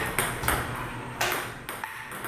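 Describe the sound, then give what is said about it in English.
A human plays a table tennis rally against a robot opponent: four sharp, clicky ball strikes at uneven intervals, fairly loud, with a faint hum between hits and no talking. “That's the sound of a human taking on a robot table tennis opponent.”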